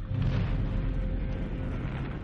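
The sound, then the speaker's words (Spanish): A heavy, continuous rumbling roar of a bomb exploding between a ship and a repair ship, loud, with a deep low boom that sustains without break and no talking. “Una bomba cayó entre nosotros y el vestal y me lanzó al interior de la escotilla.”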